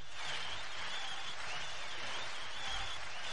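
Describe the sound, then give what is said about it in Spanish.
Steady applause from a crowd greeting a guest introduced during a radio show, a dense continuous patter of many hands clapping, moderately quiet and unbroken for the whole stretch, with no voices. “¿Ha habido aplausos? Sí.”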